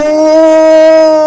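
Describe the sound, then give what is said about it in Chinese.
A voice imitates an angry lion's roar in a story, with a single long, steady howl held at an even, fairly high pitch for over a second, loud and alone with no other sounds. “狮子气得大吼，它的吼声像打雷一样，嗷呜，嗷呜。”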